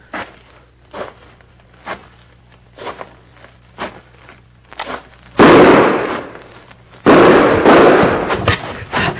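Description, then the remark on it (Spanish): Gunshots ring out as a steady series of sharp, evenly spaced cracks, fired at a person and aimed at the head, followed by two long, loud stretches of roaring, crackling blast noise. No one speaks. “como sabe que traigo el chaleco de mallas, pues me tiró apuntándome la cabeza”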